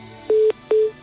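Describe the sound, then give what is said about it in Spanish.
Two short, steady electronic beeps from a telephone line as a call is placed to a person's phone, each lasting about a fifth of a second with a brief pause between, clear and fairly loud with no voices. “Tú, tú, tú, ese no es Antón Meana, ese es el teléfono de Antón Meana”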